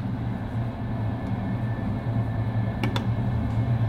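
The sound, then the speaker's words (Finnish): A steady low rumble inside a train wagon in a rail yard, with a couple of sharp metallic clanks near the end. “Sä siis piileskelit ratapihalla junavaunuissa.”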